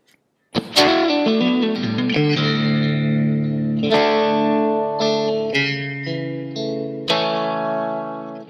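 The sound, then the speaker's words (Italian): A worship song begins with a few beats of silence, then full sustained chords ring out on effects-laden, reverberant instruments, with fresh strummed accents every couple of seconds and no singing yet. “Ci fermiamo solo un attimo, mandiamo un canto così possiamo eh, bene meditare su quanto eh, stiamo ascoltando.”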